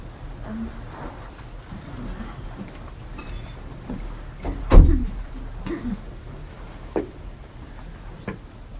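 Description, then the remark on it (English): A door is eased open a little, with a muffled clunk of the latch midway through and a few softer knocks and creaks after. “can you crack that door open just a teeny bit more?”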